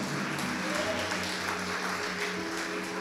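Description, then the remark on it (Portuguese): An audience claps steadily for Jesus during a church service, a dense, continuous wash of applause that stays loud and even throughout, with faint voices mixed in beneath it. “Pode aplaudir Jesus, irmãos?”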